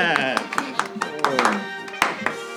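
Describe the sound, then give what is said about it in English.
Scattered, uneven claps from a small audience, a round of applause for a man telling jokes, ring out under steady overlapping voices and cheering, with one sharper, louder clap near the end. “So let's give a, a round of applause, everyone, for what's your name again?”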